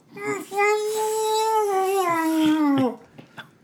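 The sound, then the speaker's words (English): A voice imitates the muffled mumbling of a man tied up with vines and gagged with a sock and a banana leaf: one drawn-out, closed-mouth moan lasting a few seconds, wavering and sliding lower in pitch before cutting off, fairly loud. “a sock and a banana leaf in his mouth, uh, is Mr. Smalls. And he turns at you with bloodshot eyes”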